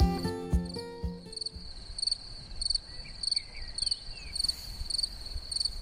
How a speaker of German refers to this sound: Ein Hallo aus einem ganz kleinen Waldstück. Vielleicht hört ihr, wie laut die Vögel hier schon zwitschern. Es ist ja die Zeit, wo jetzt alles immer mehr erwacht und wo auch ähm, die Vögel lauter zwitschern in der Früh